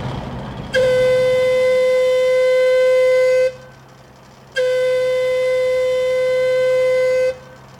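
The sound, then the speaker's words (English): A loud, steady one-minute warning siren before a blast in a tunnel sounds twice, each blast holding a single unwavering tone for about three seconds, separated by a brief pause, over a low rumbling background. “The one minute warning.”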